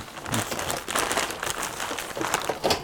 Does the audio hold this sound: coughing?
no